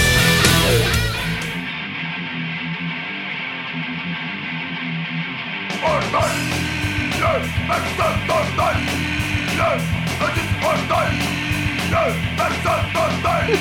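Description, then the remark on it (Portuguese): A loud, brassy intro jingle opens with sustained chords, then a driving rhythmic beat kicks in about halfway and carries on steadily to the end, with no one speaking. “Toca a vinheta!”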